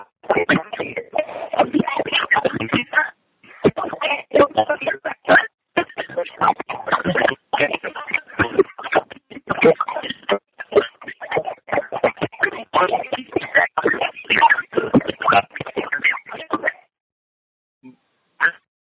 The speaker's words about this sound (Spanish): Bueno, ahí se, se, se, se, se, te escuchó un poco allí con, con interferencia en cuanto a lo que estabas comentando.